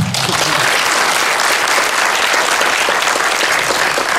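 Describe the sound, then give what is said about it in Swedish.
A crowd applauds steadily for a few seconds, a dense, even wash of many hands clapping at full volume with no voices standing out. “En applåd till.”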